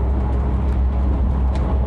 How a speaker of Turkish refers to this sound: Şu anda araç kullanıyorum. Yoldayım. Tır şoförüyüm. Tır kullandığım için.